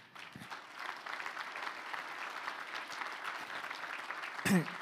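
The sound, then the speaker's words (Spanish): An audience applauds the Lord steadily, a dense wash of clapping from many hands that holds for several seconds, with a brief louder burst near the end. “Wow, dale un fuerte aplauso al Señor.”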